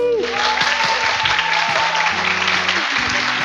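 A crowd claps steadily for a few seconds, a dense, even wash of many hands with no voices breaking through, as the audience at a recorded event with guests at Centro Universitário UGV gives a warm round of applause.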